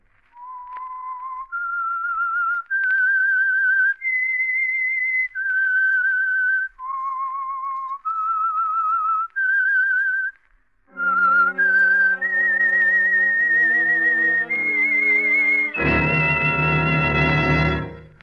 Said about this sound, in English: The Signal Oil Program, The Whistler. That whistle is your signal for the Signal Oil Program the Whistler.